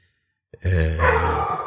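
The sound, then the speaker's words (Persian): A dog, Whiskey, lets out a single loud, drawn-out bark, rough and throaty, after a brief moment of silence, with no talking around it. “ای بابا حرف گرگ شد این واق کرد ویسکی پسرم تنک یو فهمیدم مرسی عزیزم نمیخواد واق واق کنی”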